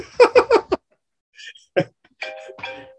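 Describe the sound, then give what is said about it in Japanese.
A timer goes off with a quick run of four bright electronic tones, followed after a pause by a few more chiming notes with steady, sustained pitches. “えあ、もうなんかタイマーが鳴って。”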